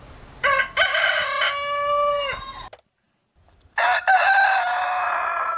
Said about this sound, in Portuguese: Olha o galo do vizinho. 6 horas 31 minutos em Chapecó.